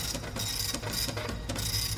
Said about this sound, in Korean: 아, 저, 저, 저게 무슨 소리예요? 소리가 좀 크죠? 도트 프린터기 소리예요. 주문이 들어오면 프린트가 되거든요.